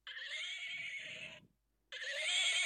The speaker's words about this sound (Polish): nie wiem czy usłyszycie mojego kucyka, który rży, ale jest fantastyczny. Uwaga, będę naciskać mu tyłek.